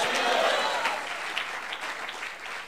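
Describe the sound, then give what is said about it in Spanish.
An audience applauds the Lord together in church, a dense, steady wash of clapping that holds at an even loudness throughout with a few sharper individual claps standing out. “Démosle un buen aplauso al Señor, hermano.”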